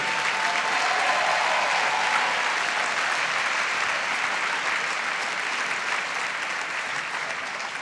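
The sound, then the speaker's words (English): Sustained audience applause for three people at an event, a dense steady clatter of many hands clapping at an even loudness, tapering only slightly toward the end, with no voices rising above it. “Let's get one more round of applause for those three.”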